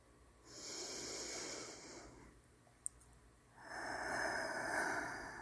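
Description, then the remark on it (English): A single deep breath: a long, airy inhale, a brief pause with a faint click, then a fuller, rushing exhale. No one speaks. “Hello, if there's anyone listening, let's all take a deep breath.”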